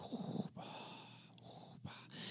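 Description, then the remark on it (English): A voice imitates Darth Vader's heavy, mechanical respirator breathing: a long hissing inhale and exhale with raspy texture, fairly loud, with brief pauses between breaths and no speech. “He's breathing as he does.”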